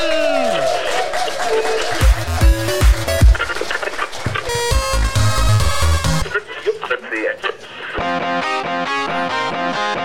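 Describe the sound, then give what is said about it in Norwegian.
An audience at a first live show claps and cheers to welcome two hosts, beneath loud, distorted intro music with heavy thumping beats; the applause stays steady and energetic through the whole stretch. “Ta vel imot to jetsettere og rockestjerner”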